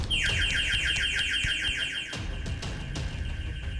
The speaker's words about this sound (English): Before vaulting the barriers to the lift lobby, a shrill alarm started.